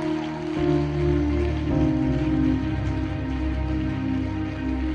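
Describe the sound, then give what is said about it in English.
A crowd at a Christian church service claps their hands for Jesus in a dense, steady patter, carried over sustained music with low held tones throughout. “Come on, clap your hands for Jesus.”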